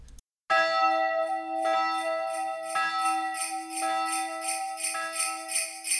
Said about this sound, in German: hier an der Stelle kommt jetzt eine kleine Übergangsmusik und dann geht's direkt in das Interview über